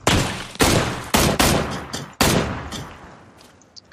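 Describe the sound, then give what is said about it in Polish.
A rapid volley of video game gunshots from an enemy firing at the player: five or six loud, sharp bursts in quick succession, followed by a fading reverberant tail. No talking. “Czyli tak do mnie strzela. Słyszę, słyszę.”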